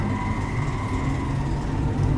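A large bus rumbles steadily, its deep engine drone filling the whole moment with a constant low roar and a faint whine above it. No one speaks.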